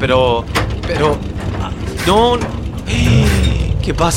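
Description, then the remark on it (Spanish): A car engine sputters and chugs unevenly as the car runs out of fuel about 10 kilometres from Vicuña at dusk, a rough mechanical rattling under anxious voices talking and gasping, as if the motor is starving and about to die. “No, ¿Por qué suena así el motor?”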